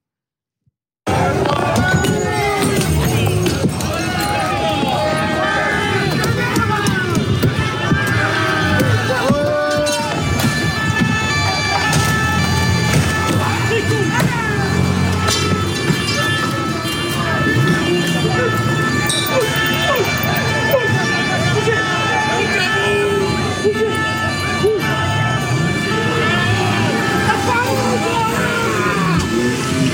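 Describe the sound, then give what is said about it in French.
Protesters repeatedly bang iron bars against a police car's metal body during a demonstration against police violence in the streets of Paris, amid a loud, chaotic crowd, with shouting voices and a siren wailing in the background throughout. “dans les rues de Paris avec cette euh, manifestation contre, entre guillemets, les, violences euh, policières et cette scène qui a frappé cette voiture de police attaquée par des manifestants à coups de, de barres de fer.”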